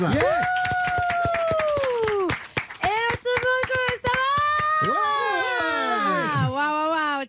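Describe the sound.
Studio audience applause on an RTL show, welcoming the weekend portrait columnist: a run of sharp, steady claps lasting several seconds, loud and overlaid with high, sustained whooping and cheering voices that rise and fall in pitch.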